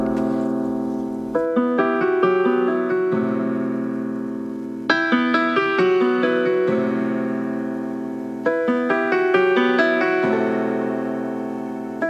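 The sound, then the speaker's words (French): A rap song's instrumental intro plays loudly with no vocals: sustained, bright synth-like chords repeat in a slow cycle roughly every few seconds, without clear drums. “et d'ailleurs on va commencer avec un son, et pas n'importe lequel”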